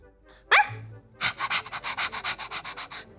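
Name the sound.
dog barking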